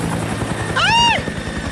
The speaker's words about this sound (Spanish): yo no me quiero subir en el helicóptero, me da miedo.